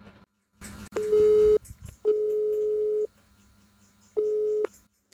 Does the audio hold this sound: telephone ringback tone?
yes